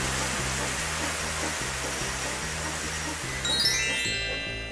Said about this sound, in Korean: 왕이시여, 소나기가 지나가는 것 같습니다.